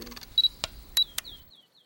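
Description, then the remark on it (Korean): A camera shutter fires several times in quick succession while photos are taken on a picnic: sharp clicks with short bright electronic beeps between them, then a few faint fading chirps trailing off into silence. “뭐예요? 빨리 찍어요.”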